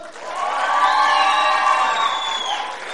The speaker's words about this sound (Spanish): Aplauso para el número dos.